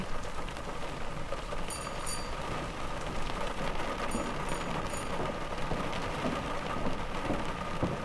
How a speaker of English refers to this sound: Gosh, this rain is so cold.